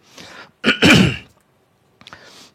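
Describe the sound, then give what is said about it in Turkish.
A man clears his throat forcefully after shouting, a short harsh burst followed by a rougher cough-like rasp, then a brief breathy exhale; fairly loud, with no talking. “Bağırırsan öyle öksürürsün diye.”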